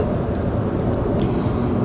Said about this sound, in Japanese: 今ね、えー、上信越自動車道の新井っていうところを過ぎて、で、妙高、妙高に向かっているんですね。